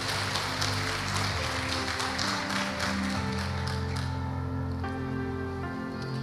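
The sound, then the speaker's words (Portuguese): A church audience applauds the Lord Jesus during a sermon in a dense, steady wash of clapping for about four seconds, then the clapping thins out, leaving sustained organ-like tones humming underneath. “Aplauda o Senhor Jesus.”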